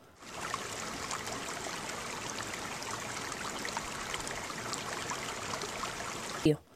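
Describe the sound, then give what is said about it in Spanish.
Steady rushing of river water flowing without pause, a broad, even wash of sound at moderate loudness that ends abruptly after a brief louder splash-like bump. “Y el león rompió la carta y bajó hasta el río.”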